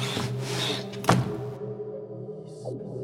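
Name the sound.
door being opened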